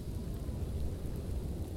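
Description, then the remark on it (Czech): Steady rain hisses without a break while a deep, rolling rumble of thunder runs underneath, fairly loud, with no voices; a thunderstorm with rain falling outside the windows of a house. “Venku za okny jejího oblačného domku pršelo a blízkalo se”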